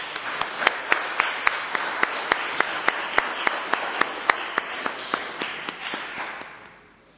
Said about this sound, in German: aber ich denke, einen Applaus hast du schon verdient für deine Arbeit.